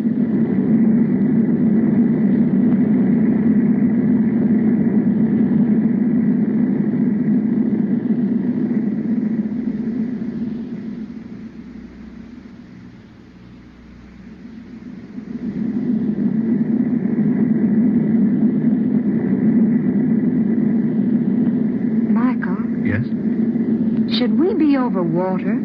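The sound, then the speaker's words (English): A steady, low airplane engine drone of a plane in flight above the rain hums on without pause, dipping softly for a few seconds midway before swelling back; brief faint vocal sounds rise over it near the end. “We flew above the rain before it started.”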